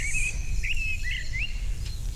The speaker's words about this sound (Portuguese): é tão bom estar assim, ouvindo os pássaros